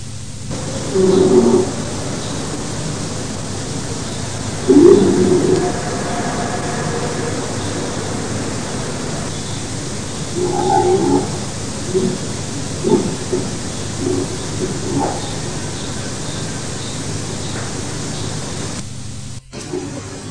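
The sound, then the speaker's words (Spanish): A hiss-laden recording of steady static with a few faint, brief voice-like murmurs surfacing from the noise, the kind of ghostly fragment offered as a paranormal voice recording. “No pensaba yo que íbamos a empezar escuchando psicofonías.”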